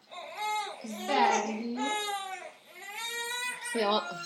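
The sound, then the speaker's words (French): A baby boy carried in a baby wrap fusses and cries as he wakes up, in wavering wails that rise and fall continuously, with brief catches of breath between bursts. “Oui, mon petit amour, il se réveille un petit peu.”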